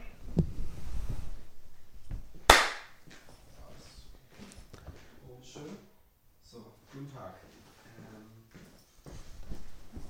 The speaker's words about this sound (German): Dieses Mal würde ich tatsächlich Part. dir noch ein Mikrofon dazugeben, weil dich hat man letztes Mal ja, nicht ähm, verstanden. Das stimmt. Klatsch mal.